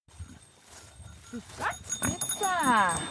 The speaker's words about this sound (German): Wir besuchen gleich ihre beiden rehbraunen Rasseschweine.